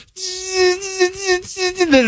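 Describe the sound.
A voice imitates a paper shredder destroying a document, a steady, buzzing drone held for about two seconds, broken by one brief gap, its pitch lurching upward at the end.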